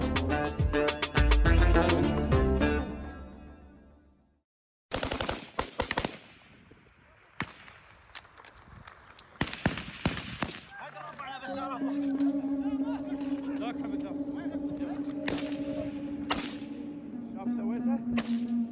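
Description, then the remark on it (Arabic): Repeated gunshots from light and medium weapons crack out, some as single loud reports and others in rapid automatic bursts, echoing over a noisy outdoor scene with shouting voices underneath, during a tribal dispute four years ago in an area less than 15 kilometres from Baghdad. “أصوات الرصاص هي من نزاع عشائري حدث قبل أربع سنوات في منطقة تبعد عن العاصمة بغداد أقل من 15 كيلومتر استخدم بالنزاع مختلف الأسلحة الخفيفة والمتوسطة من قبل أفراد بعض العشائر”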